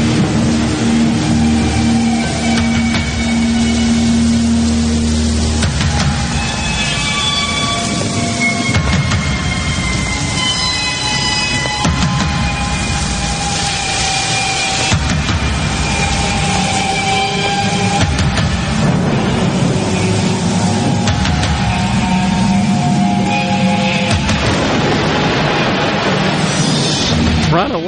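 A heavy metal song plays loud and unbroken, a dense wall of distorted guitar with grinding low end and sustained ringing notes churning over roughly half a minute.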